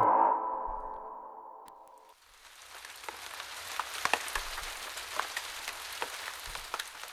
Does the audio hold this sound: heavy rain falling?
yes